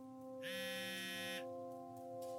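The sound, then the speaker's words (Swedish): Cecilia's mobile phone rings once at ten o'clock during the news, a bright, buzzy electronic tone lasting about a second, fairly loud over a steady, faint electronic hum. “Klockan tio när Erik och hon slöt tittar på nyheterna ringer Cecilias telefon.”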